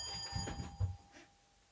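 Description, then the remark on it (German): An alarm clock rings with a steady, high electronic tone, joined by a few soft low thumps before the ringing fades to quiet. “Verdammt, mein Wecker.”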